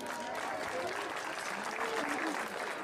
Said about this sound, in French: Donc je vous demande de l'applaudir.